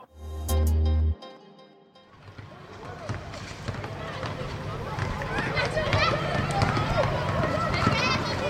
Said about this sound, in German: So klang es vor etwa zwei Jahren auf vielen Schulhöfen.